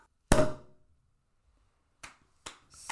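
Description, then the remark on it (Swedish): A sparkling wine cork pops once, sharp, with a short ringing tail; after a pause come a few brief, softer hissy bursts. “Okej, okay. nu ska vi poppa.”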